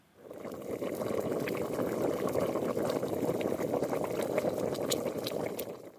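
A pot bubbling steadily on the boil, a dense, continuous churn of liquid with small pops and plops breaking through, fairly loud, with no voices.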